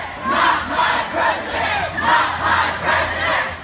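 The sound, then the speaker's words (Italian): A large crowd chants in loud, rhythmic unison, voices swelling in repeated waves at a street protest against Donald Trump in the United States, with a steady low rumble of traffic underneath. “Contro Trump sono scese in strada centinaia di persone dalla West Coast alla Pennsylvania e qui a New York nelle principali piazze.”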